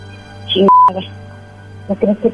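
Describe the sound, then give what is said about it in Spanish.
A short, steady electronic telephone tone sounds as the caller on the line hangs up, among muffled voice-like bursts over a low, constant hum. “Ya colgó.”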